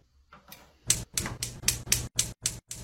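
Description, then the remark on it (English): A faulty oven that is breaking clicks repeatedly in a quick, steady rhythm, about four sharp clicks a second, fairly loud, with no one talking. “Guys, our oven is breaking. Listen to the sound it makes.”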